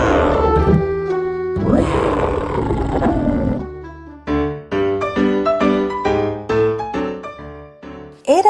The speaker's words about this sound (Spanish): el señor Pantaleón un fuerte y grande león. Su cuerpo era musculoso, su rugido poderoso.